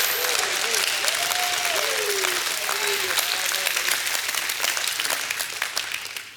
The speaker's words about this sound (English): You ought to give God a crazy hand clap and a shout of praise.